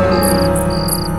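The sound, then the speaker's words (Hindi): Small anklet bells jingle in soft, rhythmic bursts in the middle of the night, about four shakes in quick succession, over a steady low droning background with a faint high ringing tone. No one speaks. “फिर ये किसकी आवाज़ है मैंने उठकर डोर चेक किया वो अच्छी तरह बंद थे फिर से फिर से वही पायलों की आवाज़”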